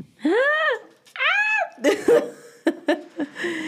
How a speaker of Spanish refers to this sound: Una cerveza bien, bien especial. Salió creo que el año pasado o antepasado. Y desde que la probé me enamoré así, queñón, queñón. Qué deli, no puedo esperar. Entonces, vamos a destapar una cerveza bien chingona, extrasolar de principio.